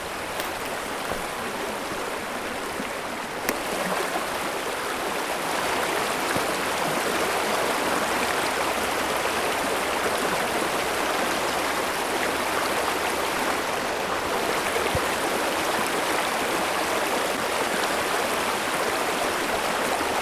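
A river with fairly cold water rushes steadily, a dense, continuous hiss of flowing water that stays loud and even throughout, with no voices present.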